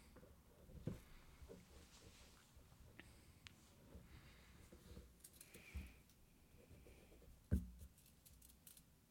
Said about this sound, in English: and she looks and sees that you've taken out a piece of paper, a little notebook there, and a pencil, and you're scribbling down some notes.